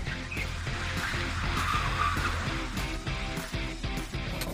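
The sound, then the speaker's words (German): A loud race car engine, 136 hp and 150 kg lighter than the production car, revs and roars while tires hiss and squeal on a slightly wet track in Mendig, the engine note rising and dropping through repeated gear changes, with no talking. “richtiges Rennauto.”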